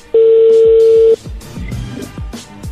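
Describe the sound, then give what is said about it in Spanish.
A phone call connecting tone: one loud, steady mid-pitched beep lasting about a second, then cutting off to low rumbling background noise with soft repeated thumps. “Ahí, ahí entró la llamada, permíteme.”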